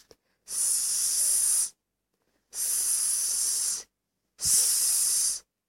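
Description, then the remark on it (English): A voice makes three long, sustained hissing 's' sounds imitating a snake, each about a second long with short pauses between, bright and airy in tone, in a phonics lesson where the hand mimics a snake crawling on the ground. “像一条 snake 一样在地上爬的那个动作。”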